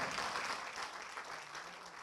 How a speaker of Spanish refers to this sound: Déle ese aplauso al Señor.